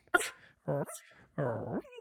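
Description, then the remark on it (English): A person mimics a small dog trying to fight a big dog, with three short, high-pitched, yappy voiced bursts, the middle two longer and whiny, fairly loud with brief gaps between. “do you think you can do uh, like a little small dog trying to fight a big dog and they're having a little bark fight?”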